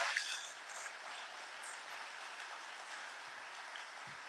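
Steady audience applause, a dense wash of many hands clapping at an even, moderate level, slightly stronger at the start and then holding constant with no voices over it.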